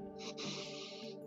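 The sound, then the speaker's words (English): A long, deep inhale drawn in steadily through the mouth, breathy and airy, lasting over a second, with no talking; a deep cleansing breath demonstrated in a breathing exercise. “Okay, so it will sound something like this, and I'm going to do an inhale,”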